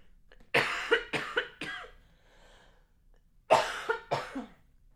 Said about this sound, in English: I'm gonna cough again, so just give me a second.